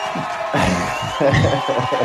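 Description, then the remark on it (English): Applause and cheering swell from a crowd after a brief lull, a steady loud wash of clapping mixed with whoops and shouting voices that carries on through the end. “it no, I just, eventually you know, you take the applause and you just move on.”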